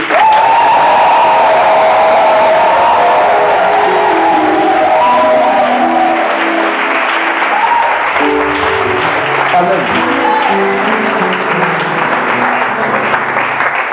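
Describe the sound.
An audience cheers and applauds loudly and steadily for the full stretch to acclaim God, dense clapping blended with shouts and whoops, while voices call out and some tonal vocal sounds rise through the din.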